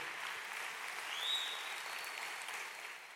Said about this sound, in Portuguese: Pode aplaudir o Senhor, porque é verdade.